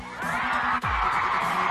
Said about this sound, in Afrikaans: Geef julleself 'n lekker hande klap.